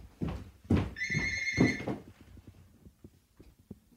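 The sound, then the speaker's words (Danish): A landline telephone rings once, a bright electronic trill lasting about a second, amid low thumps and handling noise before things quiet down. “Og så, øh, nu ringer telefonen. Jeg tager den lige og lægger ja. på.”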